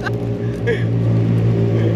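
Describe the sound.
Motorcycles rumble past, a loud, steady engine drone with rising whines as bikes go by, and muffled voices faintly mixed in underneath.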